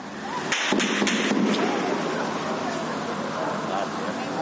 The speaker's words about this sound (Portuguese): Policiais cercaram criminosos que tentavam roubar a carga desses caminhões. Durante a troca de tiros, os motoristas se protegem como podem.